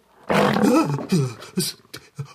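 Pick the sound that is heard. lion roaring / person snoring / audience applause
lion roaring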